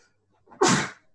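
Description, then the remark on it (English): A single sharp sneeze bursts out, a quick inhaled build-up followed by a loud, breathy explosive release that fades within half a second. “Bless you.”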